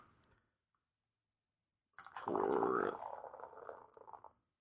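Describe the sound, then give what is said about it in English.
A beer can, the ninth beer of a tasting, is cracked open: a sharp metallic snap, then a loud rush of escaping gas that settles into a steady fizz for a couple of seconds, with a little foam coming out of the top. No one speaks. “Number 9 is in a can. So open this bad boy up.”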